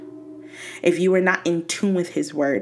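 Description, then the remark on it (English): A steady, low horn of a passing train drones in the background, starting alone and then continuing beneath a man's voice as he speaks over it. “And yes, that is a train, but we're going to ignore it.”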